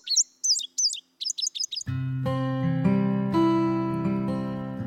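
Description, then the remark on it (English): An indigo bunting, a small bright blue songbird, sings a quick series of bright, high-pitched paired notes for about two seconds before steady instrumental music takes over. “Indigo buntings are cheery little bright blue birds with a wonderful sing song voice”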